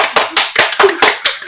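human body sound, hand clapping

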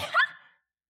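human body sound, a sneeze

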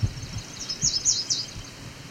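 bird, yellow warbler song

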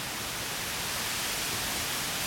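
nature, reeds rustling

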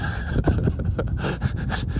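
animal, dog panting

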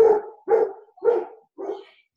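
animal, dogs barking

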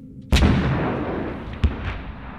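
sound effect, cannon fire

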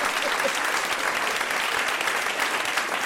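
crowd, audience applause sound effect

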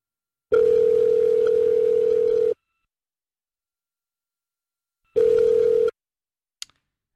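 signal or alarm, telephone dial tone

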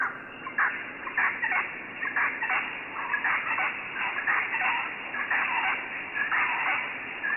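bird, birds calling

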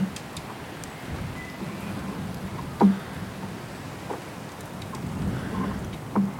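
nature, wind

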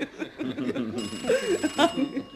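household object, telephone ringing

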